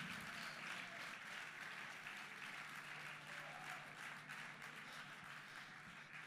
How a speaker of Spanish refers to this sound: El aplauso es para Él, la gloria es para Él, la bendición es para Él, el gozo de Dios está en nuestro corazón.